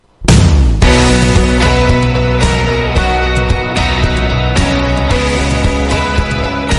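A Spanish pop song with female vocals plays loud and full from the start, with steady rhythmic accents over sustained instrumentation and no talking over it.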